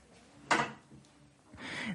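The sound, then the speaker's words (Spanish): A door being shut: a sharp knock of contact, then a longer scraping swish as it moves and settles, with no talking over it. “Este, cierra la puerta”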